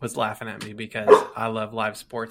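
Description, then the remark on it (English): A dog named Samson barks briefly in the background, the sharp yaps partly buried beneath a person speaking steadily in the foreground. “and you can probably hear my dog Samson in the background, so he gets a he loves he loves live sports too.”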